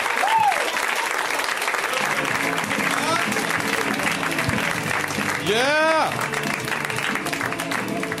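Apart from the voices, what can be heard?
audience applause and clapping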